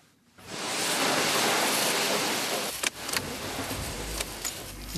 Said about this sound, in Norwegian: Vegstøv og gjørme forsvinner med skyllevatnet. En langt blankere bil forlater en av de mange vaskehallene i Oslo